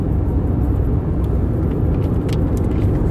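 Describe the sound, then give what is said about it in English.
Steady low rumble of a personal car being driven, heard from inside the cabin, a constant droning road noise with no pauses, fairly loud, with no voices. “Driving my personal car, not my bus, for the record.”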